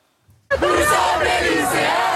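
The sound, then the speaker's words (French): A large crowd of high school students shouts and chants together at a street protest against pension reform in Marseille under a clear blue sky, a loud, sustained roar of overlapping voices that bursts in suddenly after a brief quiet moment. “À Marseille, les lycéens font entendre leur voix sous un ciel azur.”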